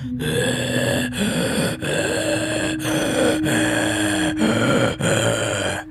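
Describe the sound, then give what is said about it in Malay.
A voice imitates loud, heavy, rasping breathing, about six strained breaths in a steady rhythm with brief pauses between them, the grunting, trance-like panting of a woman in a trance during a healing treatment at a clinic near Gelang. “Nafas, nafas dia kan sangat kuat.”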